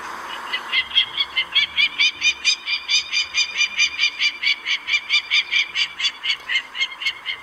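A peregrine falcon's territorial alarm call, given when someone intrudes on its nesting area: a loud, rapid run of harsh, repeated cackling notes, about three per second, sustained steadily without pause and heard clearly with no one talking.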